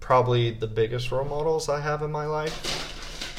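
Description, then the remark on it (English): A man speaks, then a dog rattles window blinds while trying to see outside, a burst of loose, clattery shaking that fills the last second once the talking stops. “and that is our dog trying to see what's outside through our blinds.”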